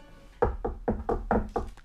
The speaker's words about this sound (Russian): Чегринский ушел к себе. Минут через десять после этого в дверь его постучались, и затем раздался голос Марьи Петровны.